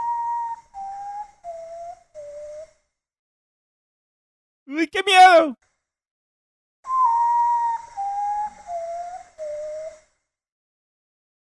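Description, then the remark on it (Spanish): A common potoo's (cacuy's) mournful bird call: a series of four whistled notes stepping down in pitch, repeated twice. A brief exclaiming voice breaks in between the two series. “Ese es el sonido del cacuy.”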